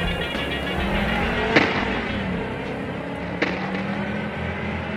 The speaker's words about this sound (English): the stolen car speeds away, disappearing behind a cloud of dust.